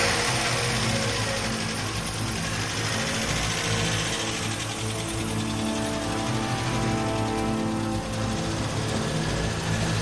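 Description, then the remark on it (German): A car engine runs steadily with a low, continuous hum, fairly loud, holding an even rumble throughout as the car, parked by the street, drives off. “Sie legte sie auf den Rücksitz, stieg ein und fuhr los.”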